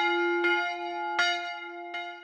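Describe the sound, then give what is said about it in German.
A church bell rings out with sustained, resonant tones, struck three times at uneven intervals, each strike adding a bright burst over the lingering hum. No voices are present. “In den Städten gab es ähm, erstmals Uhren an Kirchen und an Rathäusern und Glocken, die die Zeit und den Beginn des Arbeitstages, das, das Ende des Arbeitstages verkündet haben.”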